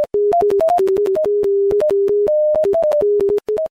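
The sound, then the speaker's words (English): A sequence of steady electronic tones from Neil Harbisson's eyeborg, a high-tech webcam headset that translates colors into sound, shifts between a few pitches, some held briefly and others longer, with sharp clicks at each change and no voices. “uses technology to translate color into sound”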